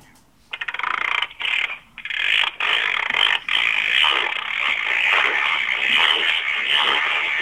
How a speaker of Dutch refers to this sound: is ook een timer. Ah ja, ik ga de timer ook even laten horen.